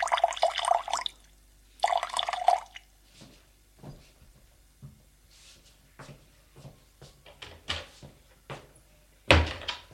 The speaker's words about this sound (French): Prends un verre. Et mets de l'eau du robinet.